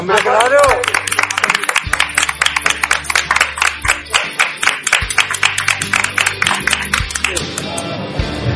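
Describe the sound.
An audience breaks into loud applause, a steady run of sharp, rhythmic claps lasting several seconds, with voices and a low hum mixed in beneath the clapping.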